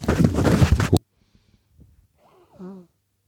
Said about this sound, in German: Der … raschelt. Ja, der … muss sich mal eben die Nase putzen.